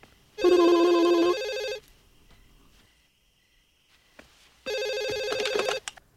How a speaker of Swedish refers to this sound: De lägger på och när Casey börjar gå ifrån telefonen så ringer den igen.